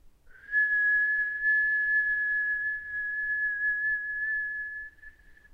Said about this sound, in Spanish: Inhalamos. Juntamos las manos arriba de la cabeza y exhalamos emitiendo el silbido.